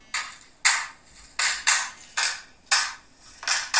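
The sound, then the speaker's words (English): The speaker's mobile phone rings with a series of bright, buzzy bursts in an uneven repeating pattern, fairly loud and with no one speaking over it. “Oh, hang on. That's, that's, that's my phone.”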